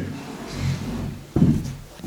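A door is opened, with a sharp click and a solid thump from the latch and frame partway through, followed by a short, low rattle as it swings.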